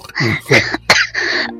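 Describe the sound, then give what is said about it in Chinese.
A run of about four hoarse, throaty coughs in quick succession, fairly loud and rough, with a short pause before the last drawn-out one, voiced for the master character in a comedic Chinese dub featuring Sun Wukong and Bajie. “师傅你咳嗽了，师傅，师傅你喝口水，”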